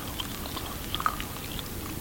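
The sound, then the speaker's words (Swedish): A small brook runs steadily right after a heavy rain shower, around Jönköping, Sweden, with the sun shining again. A soft continuous wash of water with a few brief bubbling plinks and gurgles scattered through it. Fairly quiet, with no voices. “en bäck som rinner.”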